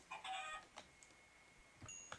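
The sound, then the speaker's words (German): A chicken in a video game clucks in a short burst of bright, nasal calls, followed by a few softer clucks and chirps spaced out over a couple of seconds, with no talking. “Guck mal, so ein, so ein Huhn droppt normalerweise so ab und zu, ähm, ab und zu Federn, meistens Fleisch.”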